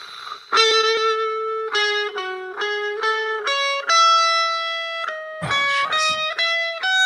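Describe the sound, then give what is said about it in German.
A melody plays from a phone for a song-guessing game, in sustained, bright, buzzy tones rich in harmonics, sounding shrill and slightly distorted, stepping between notes with a few noisy bursts near the end. No one talks over it. “Das hat jetzt unfassbar schrill geklungen auf dem Handy.”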